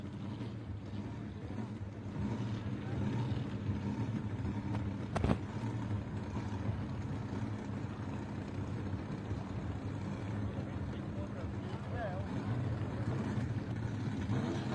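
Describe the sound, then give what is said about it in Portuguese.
Racing cars roar around a track under a green flag in a steady, continuous engine drone, with a brief sharp burst about a third of the way through. “Bandeira verde, carros em movimento.”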